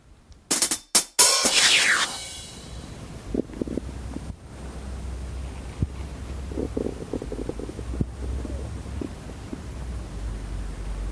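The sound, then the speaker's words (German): Gurgling and rumbling from an empty stomach in the morning, low bubbly squelches coming in irregular bursts over a steady muffled rumble, with a few sharp rustling thumps at the start. “ich weiß nicht, ob man das hören konnte, aber das sind die Geräusche aus meinem Bauch, wenn er leer ist morgens.”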